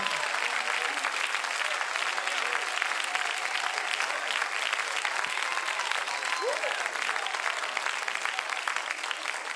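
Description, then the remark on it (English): An audience claps their hands and lifts up their voices unto God, applauding steadily for the full length, a dense, even wash of many hands clapping at constant loudness, with faint voices mixed into the noise. “Clap your hands and lift up your voice unto God.”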